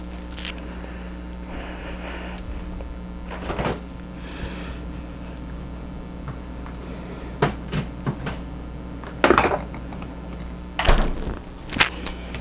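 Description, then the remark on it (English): Two cups of dry rice are poured into a rice cooker bowl, a soft hissing rattle followed by several sharp clinks and knocks as the bowl is handled. No one speaks. “So I'll put that straight in the um, bowl of the uh, rice cooker.”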